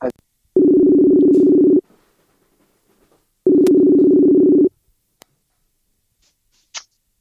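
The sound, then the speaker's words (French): A phone line rings twice as a phone call is placed: two loud, steady electronic tones about a second long each, separated by a silent pause, with a faint click and a small chirp near the end. “Allez, je te rappelle, comme ça on aura la petite sonnerie.”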